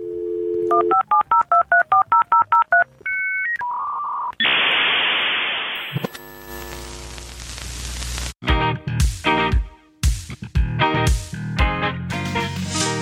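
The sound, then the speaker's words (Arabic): A classic dial-up modem connection for internet over the telephone line, as once used in Egypt: a quick run of dialing tones, a couple of beeps, then a loud hiss and screeching, warbling handshake noises with choppy bursts, played alone. “عندنا في مصر حاجه كانت لطيفه جدا اللي هو اللي هو الدايل اب اللي الناس ما سمعتش عنه اللي هو الانترنت اللي عن طريق التليفون ده لا ثانيه واحده هنخلي الناس تسمع عنه فانا عايز الاديتورز لو سمحتوا يحطوا لنا هنا صوت الدايل اب للناس ما بتعرفش الدايل اب”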